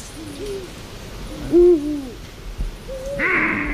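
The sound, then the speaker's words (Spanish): Eurasian eagle owls hooting, a few deep, low calls with slightly wavering pitch, one clearly louder than the rest, heard alone without talk, with a faint hiss creeping in at the end. “Siguen los búhos reales cantando.”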